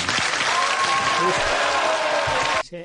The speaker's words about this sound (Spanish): El público se ha, roto a aplaudir eh, a favor de este hombre.